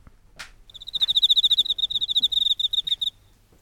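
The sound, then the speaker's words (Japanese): An Emma field cricket (enma-koorogi) chirps in a fast, steady trill of bright, ringing pulses, clear, lasting a few seconds before stopping, with a brief soft rustle just before it begins. “これもまたよく聞きますねこれが閻魔コオロギなんだ”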